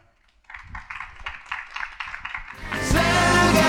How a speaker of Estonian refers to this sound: Nende sõnadega ma sellega kokku võtaksin ja palun suurt aplausi meie osalejatele